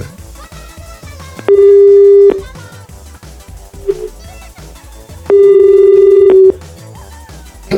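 A loud telephone busy signal heard while dialing and failing to get through: two long, steady electronic tone bursts separated by a pause of a few seconds, over a murmur of quiet background noise.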